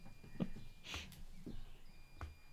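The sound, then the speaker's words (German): A washing machine's end-of-cycle beep sounds once, short, high-pitched and faint, with a few soft knocks around it and no one talking. “Übrigens, meine Waschmaschine ist fertig. Hörst, hörst du das fertig. auch piepsen?”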